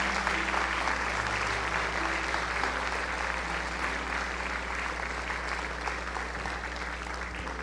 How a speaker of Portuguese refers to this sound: Glória a Deus. Pode celebrar o Senhor com suas palmas.